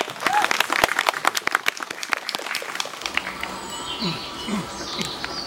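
audience applause

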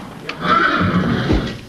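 horse neighing

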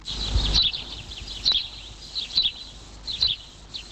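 sparrow chirping

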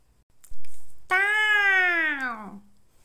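cat meowing

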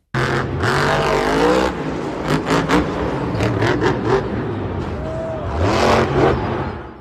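monster truck engine revving

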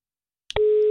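telephone call tone

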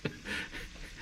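cat sniffing

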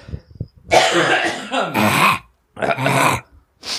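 people clearing their throats

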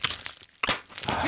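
bubble wrap being popped

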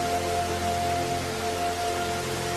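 rushing water

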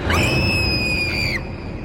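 a person screaming

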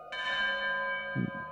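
alarm bell ringing

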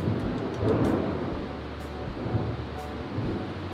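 thunder rumbling

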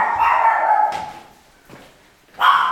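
small dog barking

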